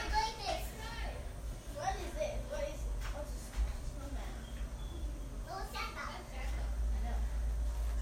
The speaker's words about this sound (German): Soll ich die jetzt mal hier wegschicken? Weil ich habe jetzt irgendwie keinen Bock auf so Kindergeschrei.